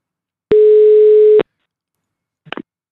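A single steady electronic ringback tone of an outgoing phone call sounds loudly for about a second, followed by silence and then a brief faint click or rustle as the line seems to pick up.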